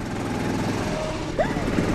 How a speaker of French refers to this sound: Vous venez d'entendre le bruit du moteur d'un des cartes du karting de l'essai. Ouh, c'est moi qui pilote. Un kart, c'est une voiture à rare le sol.